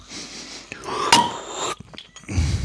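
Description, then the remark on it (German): The cap of a bottle of elderflower lemonade is twisted open with a sharp pop and a rushing fizzy hiss of escaping gas, followed by quieter rustling and a low bump. “Aber können wir gerne aufmachen. Ja, ich habe die jetzt hier schon stehen.”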